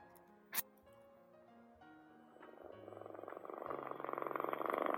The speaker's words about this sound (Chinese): 菲菲的呼噜声越来越响，他睡着了。